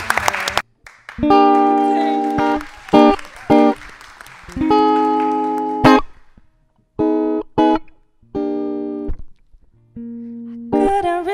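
A brief burst of applause from a full hall gives way to a live song performed on stage: sustained, melodic sung or played phrases in separate bursts with short pauses between them, fairly loud throughout.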